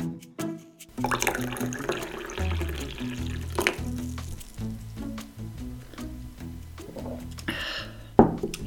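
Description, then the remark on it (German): Hot water is poured steadily into a cup over fresh mint and ginger, a continuous liquid splashing and gurgling for several seconds, ending with a brief sharper splash. “Passend zum Thema gibt es heute frische Minze und Ingwer mit heißem Wasser aufgegossen.”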